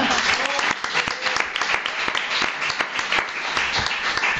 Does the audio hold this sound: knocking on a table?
no